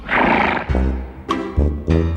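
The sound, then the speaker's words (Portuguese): A mare neighs loudly, a long shrill whinny breaking into several quivering bursts over about two seconds, with no voices. “Rapaz, que égua boa de galope é melhor do que o cavalo.”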